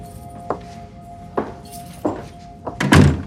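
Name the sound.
front door being opened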